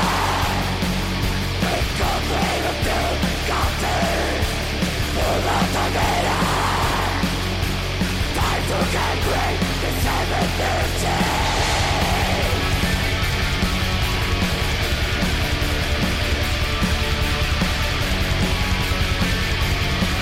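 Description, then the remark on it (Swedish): A loud, dense music track plays continuously from start to finish, with a steady low bass line and regular rhythmic hits running through it. No one talks over it. “Skitsamma, nu lyssnar vi på musik.”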